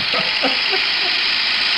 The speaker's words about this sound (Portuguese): Ah, o trator Teixeira. É. Ah, entendi. Tá. Teixeira Tractors. É o seguinte, Tratores Teixeira é. Olha o barulho do trator aqui, ó.